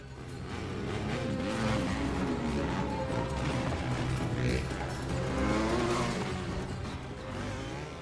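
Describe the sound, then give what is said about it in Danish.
Roaring engines of fast motorcycles race past in a film scene watched on a plane seat screen, their whine rising and falling in a loud, continuous blur with tire noise, sounding intense throughout. “Inger bliver suget ind i en verden med hurtige motorcykler og hemmelige agenter.”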